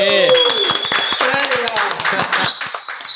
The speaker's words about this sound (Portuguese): Pra galera que tá assistindo aí, primeira gravação nos estúdios novos do MJCast. Uma salva de palmas aí.